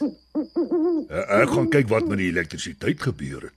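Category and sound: bird, owl hooting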